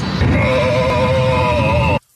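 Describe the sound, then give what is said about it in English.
Strange, wavering moaning tones, like animal bleats, drone loudly and continuously for about two seconds through the intercom speaker of an American Airlines plane, recorded on a passenger's cell phone, with a low rumbling hum underneath, then cut off abruptly. “American Airline flights have reported hearing a cacophony of disembodied sounds coming from the intercom.”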